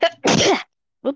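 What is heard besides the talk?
sneeze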